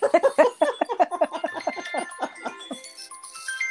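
A mobile phone rings with a melodic ringtone: a quick run of bright chiming notes that gives way to softer sustained tones, fairly close and clear, with no one talking.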